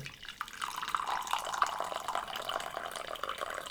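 Coffee being poured into a cup, a steady trickling stream lasting a few seconds with faint splashy detail, with no one talking.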